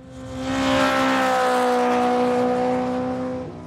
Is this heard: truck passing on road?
yes